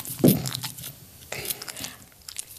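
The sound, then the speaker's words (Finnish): Wet smacking and licking sounds from a dog's mouth, fairly quiet, a few irregular bursts over a couple of seconds with no talking. “Tuo maiskuttaminen on monesti sellainen, että ne aina tai niinku, et, et niinku vaikka saattaa niinku haukottaa, niin se aina koiralle semmoista, että se vähän rauhoittaa itteensä.”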